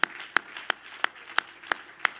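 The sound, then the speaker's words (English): A church audience claps hands to Jesus in a steady, unison rhythm, seven sharp, crisp claps in quick succession over a soft wash of scattered background noise, with no talking. “Clap your hands one more time to Jesus.”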